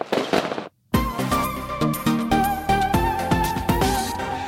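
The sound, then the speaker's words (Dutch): A rapid string of sharp firecracker bangs cracks out, loud, several in quick succession over a bright sustained musical backdrop, after a brief hiss and a moment of silence. “Nou jongens, het nieuwe jaar is met een knaller begonnen, dat konden jullie wel horen.”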